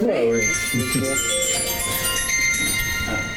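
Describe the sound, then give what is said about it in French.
A telephone rings with a bright, bell-like electronic tone that sustains steadily throughout, while people talk softly underneath. “Bon, ça, c'est un téléphone qui dit vous avez assez parlé.”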